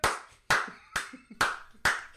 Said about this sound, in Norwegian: Han er han som klapper på flyet nå.